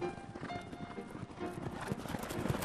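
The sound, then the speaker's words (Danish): Racing pony hooves trot in a steady, rapid clip-clop rhythm at moderate loudness as several ponies, including Pyrus, Pippi and Diesel, pound along in a fairly tight field about 20 meters apart with a lap and a half to the finish, while a voice commentates on the race. “Og der er ved at være nogenlunde tæt samling på feltet. Cirka 20 meter mellem hver.”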